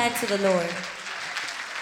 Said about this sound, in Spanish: Dale un aplauso fuerte a ese Dios de poder.